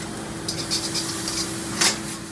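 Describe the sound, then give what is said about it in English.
Mushroom sauce containing crickets sizzles in skillets as chef Sean Bruno prepares it at Linger, a Denver restaurant: a steady hiss, broken by a few short rasping bursts and one louder scrape near the end, with a low hum underneath and no talking. “Bugs also taste yummy at Linger, a Denver restaurant that invites Koelling and his grandchildren and Franklin to come on over and watch as chef Sean Bruno prepares a mushroom sauce in sizzling skillets.”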